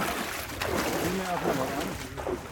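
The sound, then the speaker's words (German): A large drag net with fish inside being hauled in with great effort beside a boat toward the shore, with steady watery sloshing and wind noise throughout, while indistinct voices murmur in the background. “Das Netz lässt sich nur mit großem Kraftaufwand ziehen”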